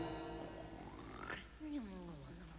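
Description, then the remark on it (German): A single exaggerated, loud snore: a rising, nasal, pitched inhale followed by a low, gravelly, falling exhale with a piggish grunting quality. No one speaks. “Du schnarchst ja.”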